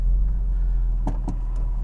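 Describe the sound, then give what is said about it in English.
A steady, heavy low rumble of road traffic fills a busy big-city street after rain, heard from a Porsche 911, with a few short sharp clicks cutting through near the end; no one speaks. “Oh dear God, this is a busy street.”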